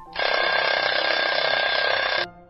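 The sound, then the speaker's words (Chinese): Five large alarm clocks beside a bed ring loudly for about two seconds, a continuous rapid metallic jangle with a bright, high tone, then cut off abruptly. No one speaks. “兔爸爸在皮皮床边放了五个大闹钟”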